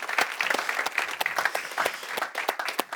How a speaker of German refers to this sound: Und darum wollen wir das noch einmal tun, dass wir alle, die mit dabei sind, online zuhören, zuschauen, äh, dass wir sie mit einem kraftvollen Applaus noch einmal begrüßen.